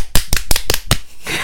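Five sharp hand claps in a quick, steady rhythm, loud and crisp with no voices, trailing off into a short stretch of soft hiss.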